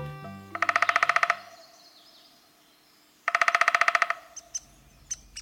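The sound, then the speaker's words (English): A downy woodpecker gives two quick, rattling whinny calls a couple of seconds apart, followed by a few short, sharp single notes; clear, with no talking. “Coast to coast, border to border, forest to feeder, the downy woodpecker goes about its business in 49 states.”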